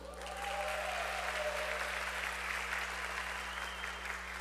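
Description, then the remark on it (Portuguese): An audience claps steadily for a presenter after his talk, a dense, even wash of many hands that swells in within the first half second and holds at a strong, constant level to the end. “Arrasou, palmas para o Profinho.”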